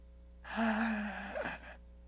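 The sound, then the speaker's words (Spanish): A person voices one long, strained gasping breath, a harsh rasping intake that rises and then trails off, imitating the labored breathing of Jesus on the cross. It is fairly loud, with no talking. “ve a la cruz y escucha a Jesús cómo está respirando”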